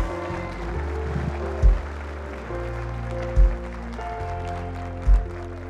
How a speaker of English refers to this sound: Give her a hand clap. Come on, somebody out there.